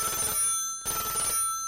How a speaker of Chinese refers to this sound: 突然间，报案电话响起来了。